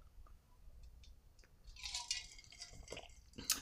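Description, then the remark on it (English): Quiet sip from a drink: a soft wet slurp followed by a gulp and a few small mouth and liquid sounds, with no talking. “So just going to take a sip.”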